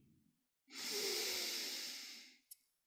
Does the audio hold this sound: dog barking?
no